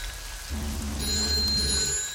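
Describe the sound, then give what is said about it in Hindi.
A PCO (public call office) telephone in a shop rings during rainy weather, a single bright, bell-like burst about a second long, over a steady low rumble and a hiss of falling rain. “लेकिन जब फोन का बजना नहीं रुका और चिड़ बढ़ने लगी तो उसने आखिरकार फोन उठाया”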